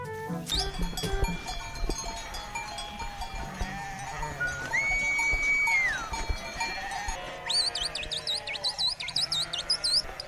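A large flock of about 1,200 ewes bleats continuously, many overlapping calls at varied pitches, with a steady rustle of movement and faint bell clinks underneath; no one speaks.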